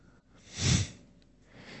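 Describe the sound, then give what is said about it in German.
One sudden sneeze from a person with a door open bursts out, a short forceful blast of air that fades within half a second, with quiet background before and after and no one talking. “Kannst du bei offener Tür nicht so niesen?”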